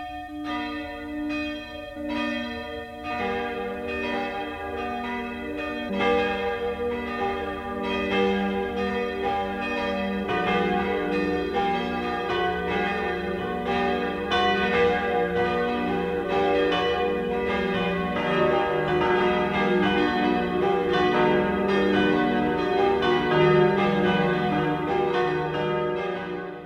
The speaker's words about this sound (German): Es ist 12 Uhr. Das Mittagsläuten kommt heute von der Fraueninsel im Chiemsee.